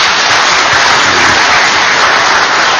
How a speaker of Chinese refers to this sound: 这是一个全新的世界纪录啊！我们要掌声表示一下祝贺。